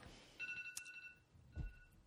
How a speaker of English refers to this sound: What? Oh, your phone's going off. It's time to take your birth control.